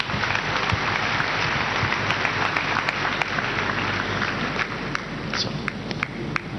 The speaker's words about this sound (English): Clap for Jesus Christ.